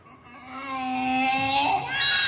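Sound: donkey braying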